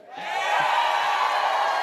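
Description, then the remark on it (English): A large audience at CPAC erupts into roaring cheers and applause as Matt Gaetz attacks Mike Pence on stage, swelling quickly to a loud, dense wall of sound that holds steady with no one speaking. “That's the uh, that's Roaring the response. applause there.”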